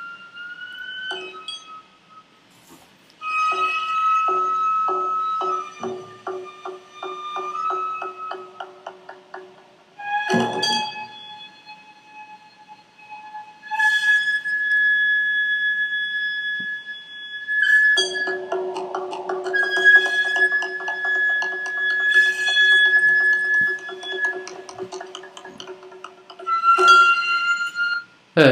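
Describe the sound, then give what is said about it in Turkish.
Japanese gagaku court music: long, sustained reedy tones drift and bend slowly over a shimmering held chord, punctuated by a few sharp percussive strikes, with no voices. “Japonlar bakalım ne dinliyormuş. Çok ilginç. Ben bunu dediğimde gaguku adında bir müzik türleri var. Ben bunun sesini açacağım.”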